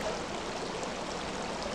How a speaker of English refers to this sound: This is what the Huron River sounds like.